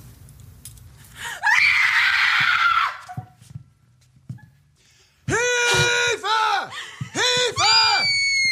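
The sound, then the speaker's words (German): A person lets out a series of loud, shrill screams, four piercing cries in quick succession after a brief burst of harsh noise and a quieter pause. “Wenn du das Bedürfnis hast zu schreien, solltest du das jetzt tun.”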